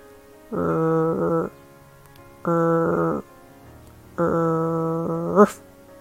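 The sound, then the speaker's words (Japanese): A person imitates a dog's growl as a pronunciation exercise for the English word 'hurt', with three sustained, throaty voiced rumbles separated by short pauses, the last one longest and ending abruptly. The voice is fairly loud, with no other talk. “まずは犬のうなり声の真似をします。”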